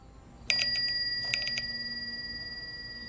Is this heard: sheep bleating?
no